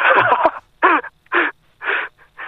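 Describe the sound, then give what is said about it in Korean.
A crow caws about five times on a mountain in a steady rhythm. Each call is a harsh, raspy, fairly loud burst with brief gaps between. No one speaks. “까마귀가 울어.”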